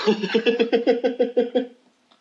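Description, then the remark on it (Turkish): A quick run of about ten short, voiced cough-like bursts in a steady rhythm, fairly loud, sounding like someone deliberately faking a cough, then silence. “diye öksüreceğim şimdi.”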